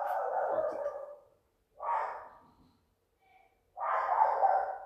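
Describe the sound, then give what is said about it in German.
A small dog barks three times in drawn-out, fairly loud bursts separated by short pauses, with no one talking. “Digga, mein Hund soll seine”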